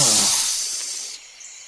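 A python gives one long, breathy hiss, loud at first and trailing off over about a second, bright and airy with no voices over it.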